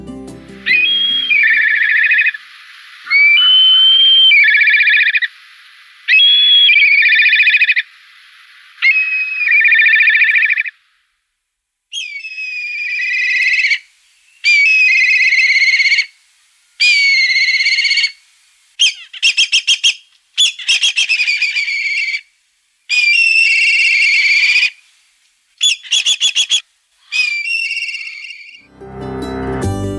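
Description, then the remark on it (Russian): A black kite, a large bird of prey, calls over and over, loud, high whinnying cries in bursts of quavering, trilling notes separated by short pauses, growing more broken and rapid toward the end, with no voices. “И эта птица называется коршун или еще в народе его часто зовут цыплятник.”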